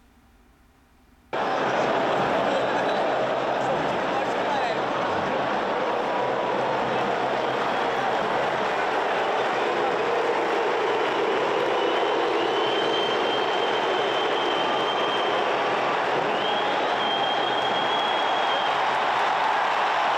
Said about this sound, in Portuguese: Ó, nós temos uma, uma imagem com som, que é o mais importante, é, da torcida do Flamengo, vaiando o Pedro, quando sai o Pedro, e aplaudindo o Gabigol, que entra no lugar do Pedro.